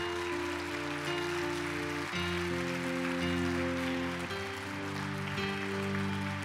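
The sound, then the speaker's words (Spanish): A crowd applauds steadily for several seconds, a dense, even patter of clapping over sustained keyboard chords that shift twice, giving a strong round of applause to Jesus Christ. No one speaks. “Dale un fuerte aplauso a Jesucristo.”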